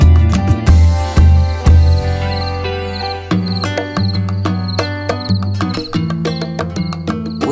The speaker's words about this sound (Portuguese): Grilo, grilo.